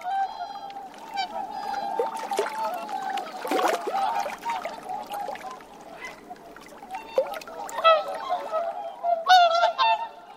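A flock of whooper swans at Lake Furen on the Nemuro Peninsula, Hokkaido, Japan, calls continuously with bugling, honking notes, several birds overlapping at once, some loud, with a faint watery background and no talking.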